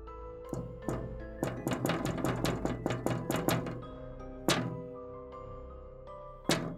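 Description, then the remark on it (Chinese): Light, sharp knocks on a window pane at around one in the morning, a quick irregular flurry of about a dozen taps with a faint glassy ring, then two isolated knocks after pauses. No voices. “好像是窗户被小石头打到的声音，又或者是有人用手轻轻的在敲打，不知道是不是因为有风，还是真的有人在敲窗户。”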